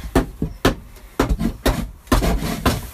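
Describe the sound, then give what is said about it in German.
A hand saw cuts a notch into wood in quick, rasping back-and-forth strokes, about two per second, fairly loud, with no voices. “Ich säge jetzt hier gerade eine Kerbe rein.”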